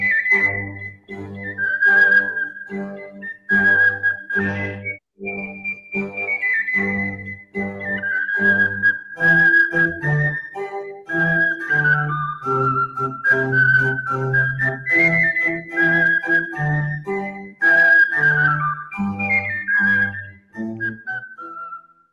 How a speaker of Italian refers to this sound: Oh, e con, su queste belle parole noi facciamo vedere la sigla dell'almanacco del giorno dopo, così ecco, sta, eccola qua.